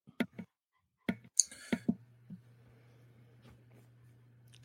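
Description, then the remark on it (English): A handful of sharp clicks and taps in quick irregular bursts as someone searches on a phone, followed by a low steady hum with no talking. “I had to go and look up and as I go to my phone now because I didn't actually pull it up before this, what Newski's bacon is.”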